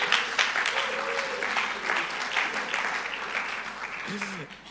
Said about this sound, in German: Ja, wir, wir, sind hier im Lobpreis wir klatschen, wir heben unsere Hände und wir freuen uns ähm, an Gott, wir freuen uns, dass wir zusammenkommen können. Ähm, gebt euch mal selber einen Applaus.